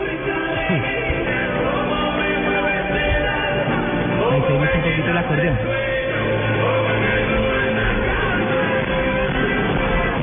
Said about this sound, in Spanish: Oigámoslos un poquito. Bueno, los gritos. Grabación eh, en celular.